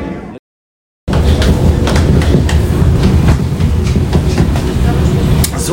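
A U-Bahn train approaching the Wuhletal rumbles along steadily in the rain, its wheels clicking rhythmically over rail joints in a loud, continuous clickety-clack heard from inside the car after a brief moment of silence.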